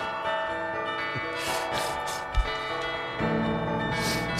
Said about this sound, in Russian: Нехорошо говорить на фоне колокольного звона. Молчать надо.